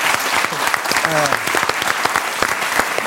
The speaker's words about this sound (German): Applaus, also Applaus.